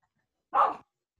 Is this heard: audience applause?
no